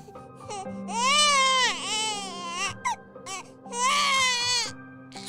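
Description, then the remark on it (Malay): A newborn baby cries loudly in long, strained wails while its mother tries to soothe and pat it, rising and breaking into short gasping sobs between two main bursts of crying. “Jadi bila anak dia dah nangis kuat macam ni”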